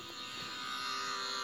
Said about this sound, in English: that's my alarm.